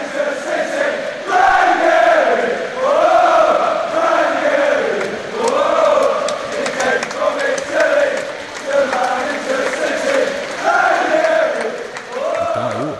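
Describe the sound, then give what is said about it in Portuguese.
Leicester City supporters sing the chant they sang for manager Claudio Ranieri, a large crowd in unison, loud and sustained, with the melody rising and falling in regular phrases over a stadium-like roar. “mas a gente queria fazer uma homenagem aqui para ele, essa musiquinha que a gente já está ouvindo aqui no fundo, é a musiquinha que a torcida cantava para ele.”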